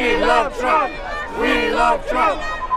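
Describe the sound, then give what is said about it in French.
A large crowd of pro-Trump marchers in Washington chants the slogan "Make America Great Again" in unison, loud rhythmic voiced phrases repeating in about three bursts with short pauses, rising and falling in pitch over steady background murmur. “Ils sont des milliers à marcher pour, crie-t-il, Make America Great Again, le slogan cher à leur chef.”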